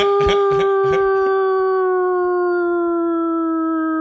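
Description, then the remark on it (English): A person imitates a wolf howl: a few short, bark-like yelps up front, then one long, loud, steady howl slowly sinking in pitch. “That was more of like a bark.”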